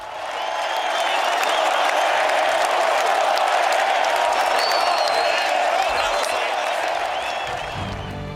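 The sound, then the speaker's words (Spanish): A sustained ovation from an audience in tribute to the late dresser of bullfighter Curro Romero: dense, steady applause with crowd noise and a few whoops, holding loud for about eight seconds before easing slightly at the end. “Descanse en paz, Gonzalito, y recoja esta sincera ovación.”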